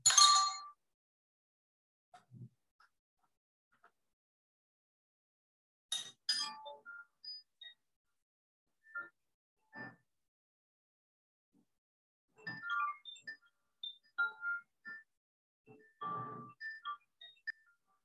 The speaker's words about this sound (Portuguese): Vou até tocar aqui, ó. Esse aqui, o koshi.